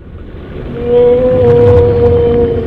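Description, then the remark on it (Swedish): A killer whale call: a sustained, steady tonal whine with bright harmonics that swells in after a second and holds, over a low underwater rumble. No voices. “Vi har sett en sån eh, ovanlig film som en dokumentär om späckhuggare.”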